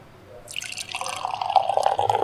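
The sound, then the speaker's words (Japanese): Tokyo Blues Session Ale, an amber-coloured craft beer, pours into a glass with a good foam, a steady liquid stream that starts after a brief pause and grows fuller and slightly louder as the glass fills, with no voices. “ね次ますよ。いい音です。いい泡だね。いい泡だし、いい色ですね。琥珀色です。”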